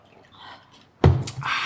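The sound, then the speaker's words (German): After a second of near silence, a loud slurping sip from a cup of iced coffee, about two hours old with some ice cubes still in it, the cubes shifting and rattling as the drink is taken. “Ich nehme noch einen Schluck von meinem äh, Eiskaffee.”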